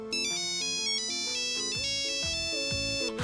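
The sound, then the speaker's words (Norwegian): A shrill, synthetic ringtone from a Nokia 3410 mobile phone, a small compact handset launched in 2002, plays a quick stepping melody of bright beeping tones, loud, with no voices. “Og det er den lille, kompakte telefonen som du kanskje husker, med integrert antenne, batteri som varte i dagevis, og med ganske skjærende ringetoner.”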